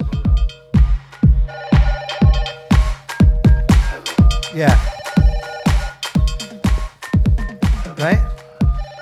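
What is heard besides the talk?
telephone ringing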